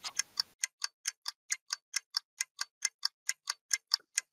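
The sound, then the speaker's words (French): A clock timer ticks steadily and briskly, about four crisp, evenly spaced clicks per second, clear with nothing else around it. “Tac, tac, tac, tac, tac tac, tac tac.”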